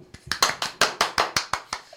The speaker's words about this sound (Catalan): Ah, un aplaudiment.